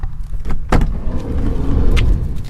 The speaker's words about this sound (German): So, ich mache mal die Schiebetür zu. Dann sind wir ganz ungestört. Ich habe einen Renault Traffic, der ist ein Stück größer als ein VW-Bus, aber immer noch kleiner als ein Kastenwagen, mit dem viele aktuell zum Campen fahren